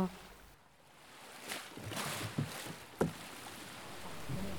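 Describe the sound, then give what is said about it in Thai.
Ocean waves wash steadily onto a beach in a soft, continuous rush, with a few sharp knocks and thumps and faint voices in the background. Recorded at Pranburi beach, Thailand, where a group of fishermen were repairing boats and drying squid. “ระหว่างทางที่เรากำลังบันทึกเสียงคลื่น เราก็ได้เจอกับกลุ่มชาวประมงที่กำลังซ่อมเรือ และทำปลาหมึกตากแห้งพวกเขาเล่าภาพจำของพื้นที่ชายหาดปราณบุรีให้เราฟัง”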